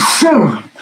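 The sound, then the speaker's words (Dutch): A single loud sneeze: a sharp hissing burst followed by a voiced, falling exhale, with no talking over it. “In je elleboog, hè,”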